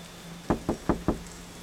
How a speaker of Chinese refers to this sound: 只要一到下雨的夜晚。外卖小哥都会跑过来敲门送外卖，我实在无法忍受每个雨夜都这样提心吊胆。